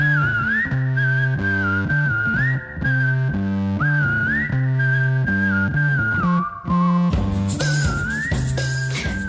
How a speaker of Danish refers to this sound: Det startede med den her fløjtesang